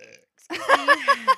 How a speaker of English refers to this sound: Sorry, burped.